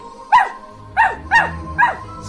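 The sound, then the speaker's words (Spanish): A small female dog barks excitedly four times in quick, uneven succession, sharp high-pitched yaps with a faint low hum underneath and no talking. “Hola, perrita, ¿cómo te portaste?”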